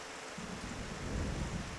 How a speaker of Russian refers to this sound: Раскаты грома вторили заклинанию, что читала Варвара, а после упали на землю проливным дождем.